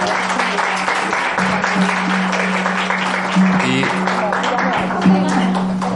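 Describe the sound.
Steady applause from an audience for a woman's participation as she is given a recognition, a dense, even patter of many hands clapping for several seconds, with a low steady hum running underneath and faint voices mixed in.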